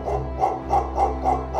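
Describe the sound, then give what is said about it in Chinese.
A dog named Wulu barks about five times toward the woods ahead, in a steady, evenly spaced rhythm, each bark mid-pitched and moderately loud, over a constant low hum. “发出了低鸣，不久之后啊，还对着前面的树林呢吠叫起来。”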